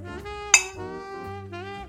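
Glasses of more than one person clink together in a toast opening the drinks, two bright ringing chimes spaced over a second apart, each leaving a brief shimmering tail above a steady, humming tonal background.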